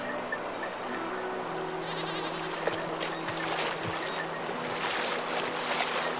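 Goats that have strayed onto a rise in a river bleat in drawn-out, wavering calls over the steady rushing of the river water, with no voices present.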